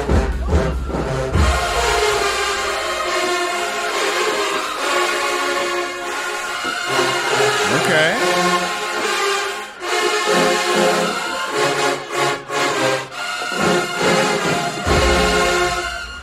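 A loud marching band brass section blares sustained, full chords, with deep tuba notes booming underneath at the start and again near the end; the trumpets are largely swallowed up and hard to hear. The playing is continuous, with no talking.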